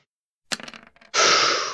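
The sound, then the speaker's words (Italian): Four dice, thrown as a luck roll, clatter out in a quick burst of sharp clicks and rattles, followed by a loud, steady rushing rattle that continues to the end. No one speaks. “Quindi proviamo un tiro fortuna a 4 dadi per l'intervento del Chosen.”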